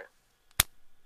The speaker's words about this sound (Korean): 기부를 해서 팔찌를 받았는데 이 팔찌가 얼마나 탄력이 좋으냐면은 네.